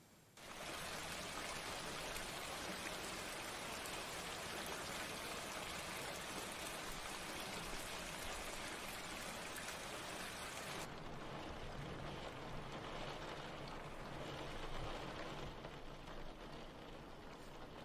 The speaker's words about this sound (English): It's raining outside. I don't see sunny or rainy. They're all just days to me. Okay, but clearly it's raining.